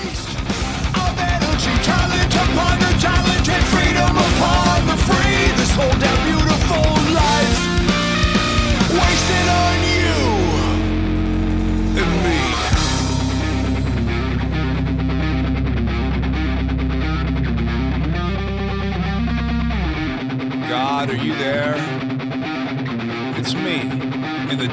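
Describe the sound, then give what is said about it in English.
A loud, driving punk rock song, the opening and title track of an album, plays throughout, with dense distorted guitars and a heavy low end that thickens midway, then briefly thins before the full band crashes back in. “Let's jump in and play the opening track and the title track here”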